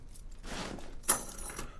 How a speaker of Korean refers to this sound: 그리고 이건 열쇠.